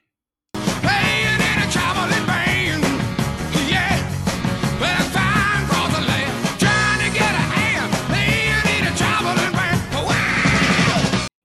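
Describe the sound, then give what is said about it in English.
A rock singer belts out a long, strained scream after the second verse, right before the guitar solo, over loud, dense band music, the raw vocal wailing and bending in pitch while the instruments pound steadily underneath. “He just like lets it all go in this scream, you know, right before the uh, guitar solo.”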